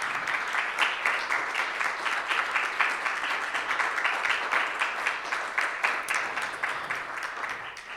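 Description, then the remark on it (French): An audience applauds steadily for about eight seconds to thank people honored for keeping their lamp lit. It is a dense, even patter of many hands clapping at a constant moderate loudness, with no voices standing out. “Alors j'aimerais qu'on puisse vous applaudir pour vous dire merci d'avoir tenu cette lampe.”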